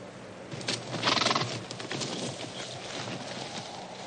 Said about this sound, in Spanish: Por detrás de los caballos aparece el explorador haciendo relinchar a los equinos.